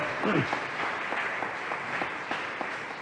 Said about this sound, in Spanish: Aleluya, dale palmas al rey, hermano. Gloria a Dios.